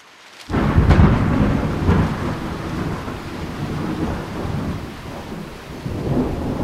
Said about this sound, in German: Der angekündigte Regen kommt mit einem Wolkenbruch.